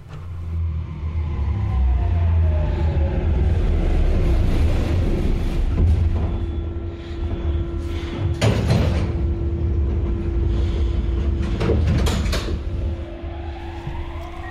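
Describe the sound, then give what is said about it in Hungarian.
A Budapest metro line 3 train rumbles loudly into Forgács utca station, its electric motors whining in falling and rising sweeps, with a steady hum and a couple of sharp metallic clanks; no one speaks. “Ha a budapesti hármas metró Forgács utcai megállójánál leszállunk a metróról, akkor már csak pár métert kell sétálni”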